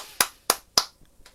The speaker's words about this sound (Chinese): 请大家为这位勇士鼓掌。